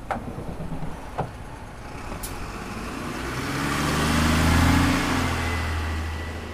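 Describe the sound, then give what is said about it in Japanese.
A bus engine idles and revs with a deep, droning rumble that swells louder midway, then eases slightly, outdoors at a bus stop in the forest at the foot of Mount Fuji, Japan, in fine weather, with a few faint clicks early on and no voices. “2人は30分ほどバスに揺られ富士山の麓に広がる樹海のバス停に降り立ちました”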